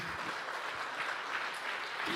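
An audience applauds loudly during a church sermon, a dense, steady wash of many hands clapping at once with no pauses, a few faint voices mixed into the crowd noise.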